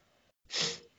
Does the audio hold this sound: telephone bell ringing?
no